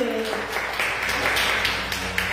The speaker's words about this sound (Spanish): Se ven a la espalda mía, están los niños de Alfa 7, un aplauso para ellos.